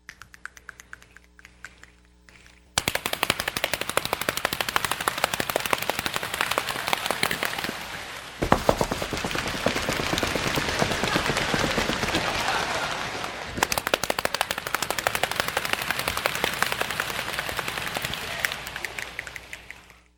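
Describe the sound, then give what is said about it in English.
A large group pats their laps and stomps their feet to imitate rain: scattered quiet tapping swells suddenly into a dense, loud, steady patter resembling a downpour, with no talking. “I'm going to point to you as I go around, and you start making whatever I'm doing as I come to you, and you will hear what it sounds like when the rain began.”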